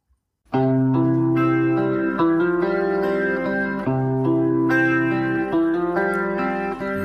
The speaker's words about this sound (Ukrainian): Добре, а тепер послухаймо пісню ще раз.